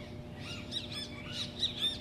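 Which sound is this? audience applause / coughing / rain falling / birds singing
birds singing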